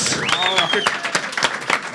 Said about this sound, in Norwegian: Eh, fortjener selvfølgelig en applaus